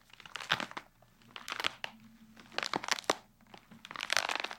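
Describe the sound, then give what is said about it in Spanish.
Wet, crunchy snapping and crackling in several bursts, like bones breaking, made by twisting a bunch of celery wrapped in a towel, with quieter creaking between the louder cracks. “El sonido delicioso de huesos rompiéndose que acaban de escuchar.”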